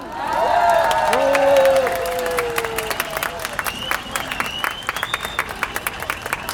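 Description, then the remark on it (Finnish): A large audience in Helsinki claps and cheers to welcome former Finnish minister Heidi Hautala, with loud whoops and shouts rising over the dense clapping early on, then the voices fade while steady applause carries on. “Raikuvia aplodien kerran, warm welcome to Heidi Hautala!”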